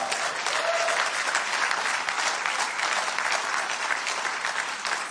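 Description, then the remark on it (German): A crowd applauds for Jesus during an Easter sermon, a dense wash of many hands clapping at an even level for about five seconds, with no one speaking over it. “Und dafür gibt es einen dicken Applaus für unseren Jesus, oder?”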